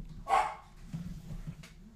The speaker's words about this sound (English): Speak of the devil. That's my dog Milo barking at uh,